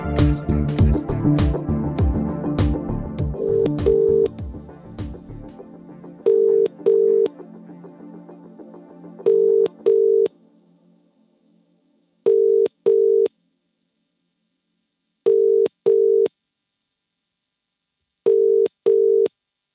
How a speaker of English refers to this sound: I tell you what, let's just try one more time. Let's try and ring him. Let's get him on the phone